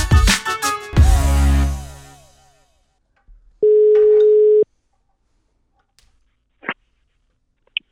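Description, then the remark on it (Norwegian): A single steady electronic phone ring tone of a call being placed to Davy Vatne sounds for about a second after a loud musical crash fades, followed by silence and a couple of faint clicks. No one speaks. “Skal vi ikke bare få han på tråden? Ja, vi prøver. Hold linja!”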